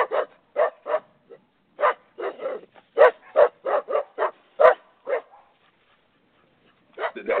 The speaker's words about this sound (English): that's our dog. Our white. That's our guard dog. That's our guard dog right there.